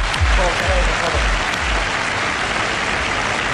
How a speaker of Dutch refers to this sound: Vindt u niet dat dat een applaus waard is? Dat is een applaus. Applaus!